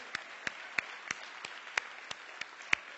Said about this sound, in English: I mean, if you don't clap, let everybody clap. Come on, just. Even if you don't want to clap, just.